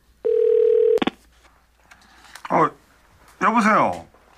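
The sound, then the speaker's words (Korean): A single steady ringback tone of an outgoing mobile phone call to a friend, who does not answer, made from a rest area on the Yeongdong Expressway at night, hums for under a second, cut off by a click. Brief bursts of a person speaking follow. “집에는 걱정하실 것 같아 전화할 수가 없었고, 친구는 전화를 받지 않고,”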